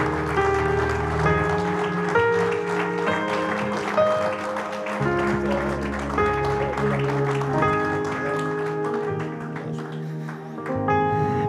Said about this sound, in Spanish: Fuerte ese aplauso de alabanza lo recibimos en este lugar.